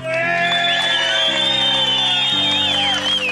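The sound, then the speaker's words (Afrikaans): A studio crowd in Brits, North West province, South Africa, cheers and whoops with shrill, rising whistles over a steady band playing sustained chords during a live broadcast, all loud and continuous for a few seconds with no clear speech. “Kom ons gee vir Suid-Afrika 'n lekker applous dames en here.”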